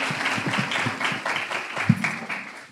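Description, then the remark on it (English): An audience gives a steady round of applause for a woman just introduced, dense overlapping claps filling the whole clip at a fairly even level, with a few louder sharp claps near the end. “Can we get a round of applause for her, please?”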